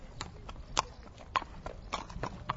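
Horse hooves clip-clop in a steady walking rhythm, about five or six sharp hollow knocks spaced evenly over a low background rumble.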